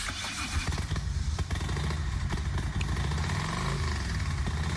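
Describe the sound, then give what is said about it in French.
A Harley-Davidson motorcycle engine rumbles steadily with a deep, loud idling throb, its low pulsing growl continuous throughout, with no talking. “Je ronfle pas, je reste que je suis en Harley Davidson.”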